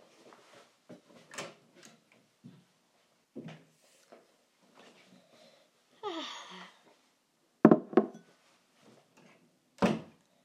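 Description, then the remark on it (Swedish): Someone fetches a glass of water: scattered soft clicks and knocks, a short gush like water filling a glass, then a few sharp clunks of a cupboard or glass being set down. No one speaks. “Men nu så hämtar jag i alla fall ett glas med vatten.”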